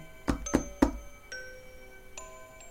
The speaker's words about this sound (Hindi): and Nancy ने miss Lewis के दरवाजे पर दस्तक दी